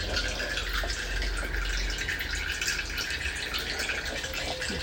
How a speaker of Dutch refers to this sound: Dan hoor je een straaltje water uit het pijpje komen. Zo de regenton in waar ondertussen alweer een laagje water is ontstaan. Nog niet heel veel, maar wel een beetje. Het regent dus.